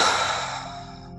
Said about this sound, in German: Und noch einmal tief durch die Nase einatmen und geräuschvoll durch den Mund wieder aus.